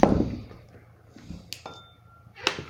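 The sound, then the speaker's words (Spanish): A microphone being removed and handled: a dull thump at the start, then two sharp clicks and clinks later, with a faint metallic ringing tone lingering between them. No one speaks. “tenemos que quitar el micro.”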